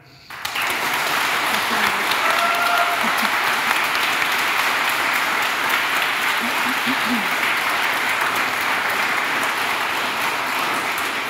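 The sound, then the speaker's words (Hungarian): A crowd applauds steadily, a dense, even wash of clapping that starts abruptly and holds at full strength for about eleven seconds, with a few faint voices underneath, applauding both representatives at the end of a Partizán election debate. “Egy nagy tapsot szeretnék kérni mindkét képviselőtnek.”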